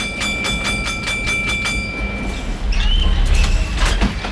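Tram line 44 from Brussels to Tervuren, Belgium, recorded in August 1997, rolls along its rails with a steady rumble, rhythmic clicking over track joints, and a high metallic squeal as the wheels take a curve. Fairly loud, with no voices.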